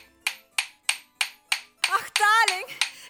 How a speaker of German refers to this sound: Da werden wir uns natürlich das Fernsehgerät einmal ansehen. Ja, das ist die Antenne, das sehe ich schon. Ich klopfe das mal eben zurecht.